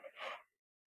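A single sharp, airy intake of breath as someone sniffs a scent from a container with its lid taken off, like a quick deep sniff or gasp, lasting about half a second before silence.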